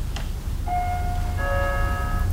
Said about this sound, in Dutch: Als ze het hof aankondigen, dan wordt er hier dus een, een belletje. Dat zal misschien zelfs gaan Ik ga het nu eens doen.